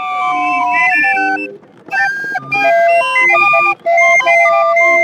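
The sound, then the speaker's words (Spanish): A barrel organ, a German instrument, played by an organ grinder in the historic center of Mexico City plays a bright, wheezy melody with steady harmonized notes, loud, with brief gaps between phrases as the tune continues. “Organilleros, el sonido de la Ciudad de México”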